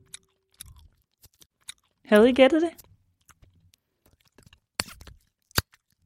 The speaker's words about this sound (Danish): Det er nemlig lyden af tykkegummi. Tykkegummi er jo også en slags slik, som er en lidt anden type end skumfiduser. Men den hemmelige ingrediens, luft, er jo i hvert fald grunden til, at man kan lave bobler.